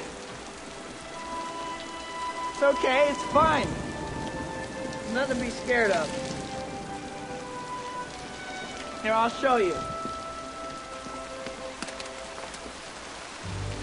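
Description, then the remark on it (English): Steady rain patters on a hard surface throughout, a constant hiss of drops, while a person speaks softly in a few brief phrases over it. “It's just rain, it's okay.”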